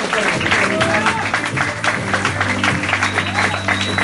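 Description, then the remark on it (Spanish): Steady, dense clapping from a crowd fills the whole stretch at an even, fairly loud level, with a low sustained hum and faint murmuring voices underneath. “Oye, ¿no, aplaudirías a un modelo económico así?”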